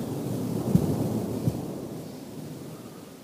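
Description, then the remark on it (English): A steady low rumble of a rainstorm with thunder rolling underneath, marked by two soft thuds early on before settling into a continuous wash of noise. “With the storm, the rain, the thunder, brings back memories of a few times I've stayed in uh, the jungle in Thailand, camping in in uh, days gone by.”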